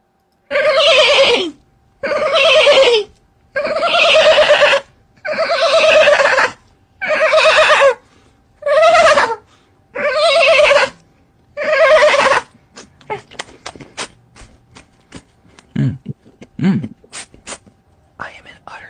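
A horse whinnies loudly eight times in a steady series of shrill, wavering calls, followed by several seconds of quieter scattered clicks and clatter.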